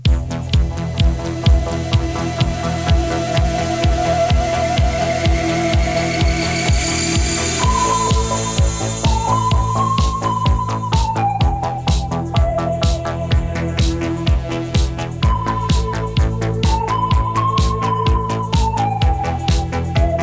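A 1977 synth disco instrumental by a French group plays loud, with a steady pulsing beat under gliding, whistle-like synthesizer melodies and bright electronic textures, no voices throughout.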